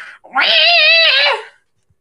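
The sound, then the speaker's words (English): A human voice imitates the pig-like death squeal of a Gamorrean guard: one loud, strained, wavering wail held for about a second before breaking off, alone with no talking. “this is a, a Gamorrean guard, and they go,”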